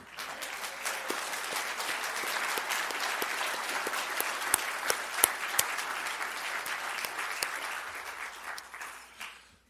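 A church audience claps steadily for several seconds for a member who was at Pearl Harbor, a dense wash of applause with a few sharper individual claps standing out before it fades away at the end.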